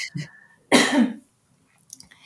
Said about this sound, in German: Es ist so eine, entschuldige bitte, ich muss einmal husten, gib mir die Sekunde bitte.